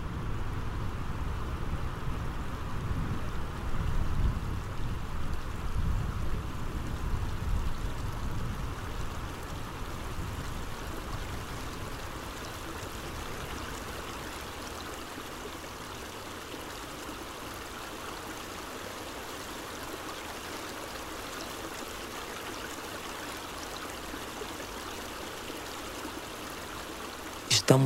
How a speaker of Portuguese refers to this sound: Podemos escutar também o som de suas águas caudalosas aumentando a intensidade pouco a pouco.